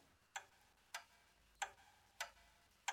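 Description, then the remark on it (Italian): A large Flemish clock in a corner ticks steadily, five crisp, evenly spaced ticks a little over half a second apart, quiet, with no voices or other sounds around them. “Un grande orologio fiammingo in un angolo.”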